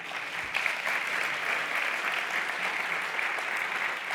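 A room full of people claps steadily, a dense, even wash of applause that holds at the same level for several seconds with no voices breaking through.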